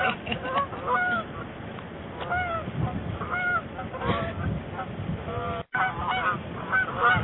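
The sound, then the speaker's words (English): A flock of geese honks loudly and continuously, overlapping calls filling the scene with a raucous clamor, with one brief drop-out near the end. “Keep these birds under control.”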